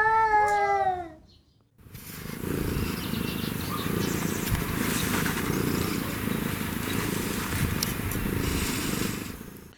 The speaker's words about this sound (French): non, le dernier extrait, Seb, ça, c'était un chat sauvage qui a plus un genre de ronronnement euh, à basse fréquence, comme on pourrait décrire.